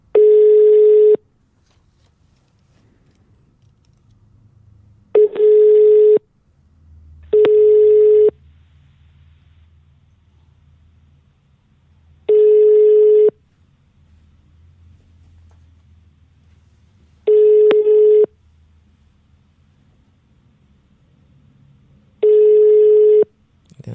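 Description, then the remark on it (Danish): A phone's ringback tone on an outgoing early-morning cold call to a company: six steady one-second beeps at regular intervals about five seconds apart, clear and fairly loud over a faint low background hum, with no talking. “så ringer vi til Salling”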